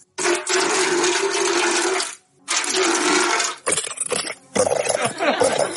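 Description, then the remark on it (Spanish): Loud running water gushes in two long steady bursts separated by a short pause, then continues in choppier, uneven splashes. “Mira, el agua. Tú dices, ¿no hace sonido? Sí, sí hace también.”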